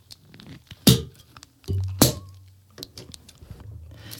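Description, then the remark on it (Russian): A sparkling wine bottle is opened: a soft thunk, then a sharp pop with a brief low rumble, followed by quiet handling noises and faint fizzing. “Поэтому игристо сегодня мое.”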